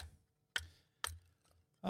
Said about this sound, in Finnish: kuten kuulet, niin tuolla joku taustalla pilkkoo puita, että me saadaan kohta tuohon takkaan tuli. Kuka se siellä on kirves kädessä heilu?